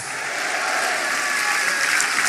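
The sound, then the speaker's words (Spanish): An audience at an evening church service claps loudly and steadily, a dense wash of many hands applauding together without pause for a couple of seconds, with no one speaking. “Vamos, denle fuerte ese aplauso y diga conmigo, gloria a Dios.”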